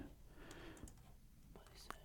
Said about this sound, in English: clicking on the song.